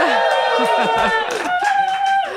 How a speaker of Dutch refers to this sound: Daarom zijn we live vanuit Sexyland. Uh, met publiek, dus laat je even horen.